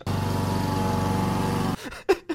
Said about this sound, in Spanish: Madre mía, eso era, igual, hay que meter cortacésped por aquí, ¿eh?